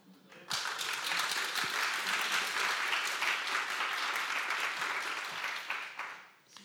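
Audience applause at the Security Case Study 2019 conference starts abruptly and holds steady, a dense wash of many hands clapping at an even loudness before tapering off at the end.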